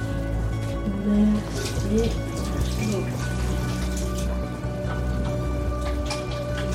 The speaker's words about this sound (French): Là, je vais me laver les mains. Et on va commencer.